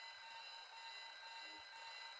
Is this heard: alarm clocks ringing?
yes